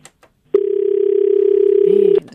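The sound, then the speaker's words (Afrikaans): A steady, loud telephone dial tone from a failed call-in telephone line drones continuously for nearly two seconds, then cuts off abruptly, preceded by a couple of faint clicks. “lyk my ons telefoonlyne wil verraggies nie saamwerk vanaand nie.”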